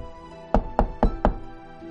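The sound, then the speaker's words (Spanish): Four loud, evenly spaced knocks by a ship's captain on a wooden cabin door aboard a sailing ship, with a faint low hum underneath and no voices. “Mientras aún estaba orando, alguien llamó fuertemente a su puerta.”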